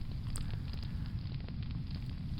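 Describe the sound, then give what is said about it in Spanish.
A bonfire crackles steadily, a deep roaring rumble of flames with scattered sharp pops and snaps breaking through at irregular moments. No voices are heard. “encendemos nuestra hoguera particular, nos recogemos y vamos a escuchar a las palabras de Séneca”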